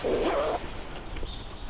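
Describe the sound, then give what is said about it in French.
A dog lets out a single short bark, fairly loud, where people are queuing at a tax office, then only a low background hum remains for the rest of the moment. “Il y a des gens qui font la queue, Un chien à bois.”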